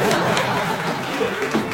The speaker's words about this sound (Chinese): 这。就是我们团队的敬业精神，来为我们微商鼓鼓掌。